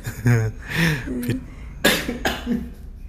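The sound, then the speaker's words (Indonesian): A coughing fit brought on by laughing: a burst of several harsh coughs mixed with breathy laughter, fairly loud, coming in uneven spasms over a few seconds. “ya gak usah ketawa sampai batuk gitu lah”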